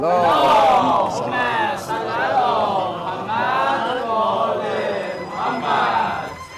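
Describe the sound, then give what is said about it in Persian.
A crowd of voices at a gathering chants salawat loudly in unison, for the health of the elders of the gathering, repeating the rhythmic religious phrase in several swelling waves without pause. “بشکنم به جهت سلامتی بزرگون مجلس آقا بلند صلوا”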